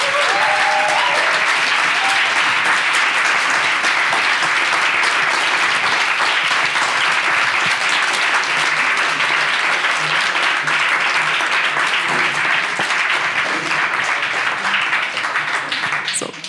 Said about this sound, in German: vielen Dank euch, dass ihr dabei wart. Ein Applaus.